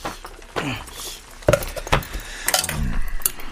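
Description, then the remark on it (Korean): Kitchen clatter as a pot of pollack soup is set down on a law textbook used as a pot trivet, with a few sharp knocks and light metallic clinks spread over a few seconds, no one speaking. “냄비 받침 좀.”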